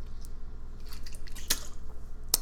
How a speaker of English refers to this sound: Excuse me, I have the hiccups all of a sudden.